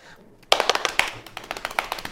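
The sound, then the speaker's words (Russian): A quick improvised drum roll tapped out by hand, roughly fifteen crisp, even knocks in a fast steady rhythm, starting after a brief hush and running for under two seconds with no talking. “Барабанная дробь.”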